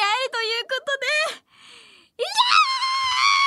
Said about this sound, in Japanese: いやーおーこれだけうるさかったよねごめんね いやもう今発散したちょっとさ家でもこんなに叫ぶことってできないからさ そうなのよ。ちょっとここで発散させてもらいました、私は。